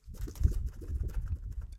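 The hard plastic base plate of a document scanner, a stable, tear-resistant and flexible plastic, being bent and flexed, giving a continuous irregular crackling and creaking with low, rumbling handling noise, moderately loud and steady for under two seconds, with no voices.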